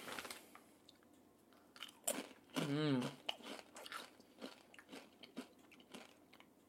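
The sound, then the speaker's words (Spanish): Crunching of someone chewing Takis rolled tortilla chips, with a rapid series of sharp, irregular crunches. A brief spoken phrase and a hummed murmur break in partway through. “Ahorita ya podrán estarlo escuchando en vez de tenerme a mí comiendo taquis.”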